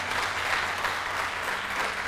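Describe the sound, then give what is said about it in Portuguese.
An audience claps steadily for a couple of seconds, a dense, continuous patter of many hands with no voices standing out, holding at an even loudness throughout. “Há um aplauso aí, é por isso que você vai ser curado.”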